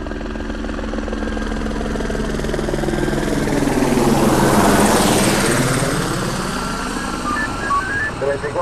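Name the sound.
helicopter flying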